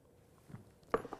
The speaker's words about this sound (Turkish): Bir yudum alacağım su.